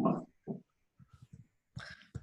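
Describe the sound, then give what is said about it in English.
A dog named Harry makes a string of short grunting and whining noises in irregular bursts, with brief pauses between them and no talking. “Hello Harry the dog”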